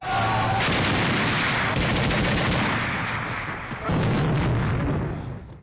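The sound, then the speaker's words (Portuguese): A loud, dense barrage of gunfire and explosions roars almost without pause, briefly easing near the end before another heavy blast swells back in. No one speaks. “E a partir daí, meu amor, foi só tiro, porrada e bomba.”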